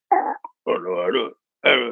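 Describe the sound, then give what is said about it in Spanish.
A voice mimics a walkie-talkie call with three short, buzzy, harmonic-rich bursts, the middle one longest, each separated by brief silences, loud. “Y de repente el loco prende su y llama y me suena así.”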